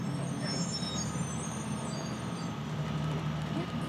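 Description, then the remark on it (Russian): A municipal bus rolls up to a stop in a forest, its heavy engine rumbling low and steady throughout, with a faint airy hiss above and no clear voices. “Среди этой лирики муниципальный автобус едет к остановке в лесу.”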